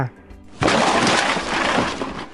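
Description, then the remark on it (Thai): A sudden loud crash bursts in after a quiet moment: a house collapsing, a dense roar of breaking and splintering debris that stays loud and rumbling for nearly two seconds. “ในวันหนึ่ง ขณะที่กระต่ายนอนอยู่ในบ้านก็รู้สึกว่าตัวบ้านนั้นมีความโครงเคง จึงรู้สึกไม่ปลอดภัย จึงรีบวิ่งออกมาจากตัวบ้าน ทันใดนั้น ตัวบ้านก็ถล่มลงมา”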